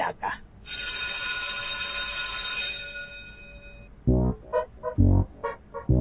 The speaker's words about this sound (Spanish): que haga sonar el timbre para empezar oficialmente una nueva clase de la escuelita de los sábados de Toma